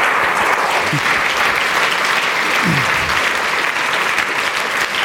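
Steady, dense applause from an audience, many hands clapping at once in a continuous bright wash that holds at an even, fairly loud level for the whole stretch.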